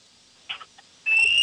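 A referee's foul whistle at a basketball game between Marysville and Concordia, blown after the ball is knocked away, gives one loud, sustained high-pitched blast that runs to the end, preceded by a few brief scuffing bursts, with no voices.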